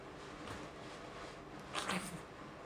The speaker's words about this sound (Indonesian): suara centong nasi uh, kayak gini misalnya kita ambil centong